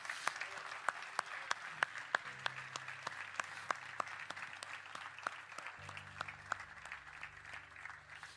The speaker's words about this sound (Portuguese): Vamos aplaudir a ele.